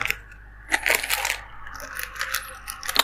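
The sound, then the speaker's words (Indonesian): Eating noises of someone eating spicy food: a few sharp clinks of utensils against a dish and soft crunching and chewing, irregular and fairly quiet, with no talking. “eh, gue lagi makan lagi ya eh, gue lagi makan yang pedes-pedes nih sebentar nih”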